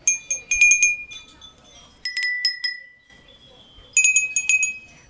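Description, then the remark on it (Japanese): Mouth-blown glass wind chimes with a daruma pattern tinkle in quick, bright clusters of strikes, pausing briefly between bursts, each high clear tone ringing on for a moment, over a faint background murmur. “これがガラスの、だるまの柄の風鈴です。”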